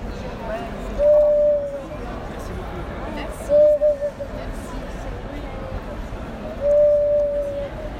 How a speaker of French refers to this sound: Là, ce que vous venez d'entendre, c'est une carafe sifflante. Quand on verse de l'eau, donc eh ben, elle siffle